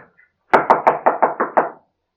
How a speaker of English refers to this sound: Finally, he arrived at the door of Father Perichon. He knocked.